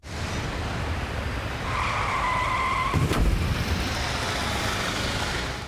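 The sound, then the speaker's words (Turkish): A car skids with a shrill, sustained tire squeal lasting over a second, then slams into two parked vehicles in a single sharp crash, overturning and sliding for metres, all over a constant loud rumble of road noise. Recorded by a residential complex security camera. “Bir otomobil park halindeki iki araca çarptı, takla attı, metrelerce sürüklendi.”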